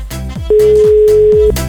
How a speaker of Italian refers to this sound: Ultimo squillo, poi devo chiudere, purtroppo, eh, purtroppo.